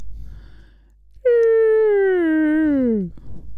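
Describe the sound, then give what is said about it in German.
A person vocally imitates a crashing airplane, the Jericho trumpet sound: a loud, sustained whining tone that starts high and slides steadily downward for about two seconds, then cuts off into breathy murmur. “denkt mal gedanklich an ein abstürzendes Flugzeug. Den Was für ein Geräusch macht das?”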